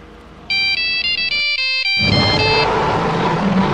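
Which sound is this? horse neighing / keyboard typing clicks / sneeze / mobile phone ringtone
mobile phone ringtone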